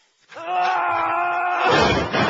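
A steady, drawn-out groaning tone holds for over a second, then breaks into a loud, noisy clatter as a bongo drum is knocked over and tumbles during an MTV Unplugged performance.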